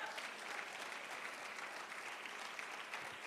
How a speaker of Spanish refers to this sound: No, hombre, dele más fuerte esas palmas al Señor, iglesia.